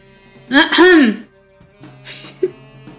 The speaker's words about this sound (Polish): Profesor Roach spogląda się na odchrząkującą Sofię